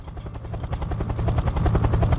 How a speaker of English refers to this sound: That's what it sounds like, like you're in a helicopter.